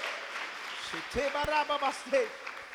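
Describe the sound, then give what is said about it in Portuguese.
An audience applauds in worship in a steady, dense wash of clapping, while a man's voice calls out loudly over it in short bursts. “Aplaudam neste lugar e adore.”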